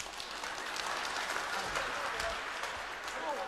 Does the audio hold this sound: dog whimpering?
no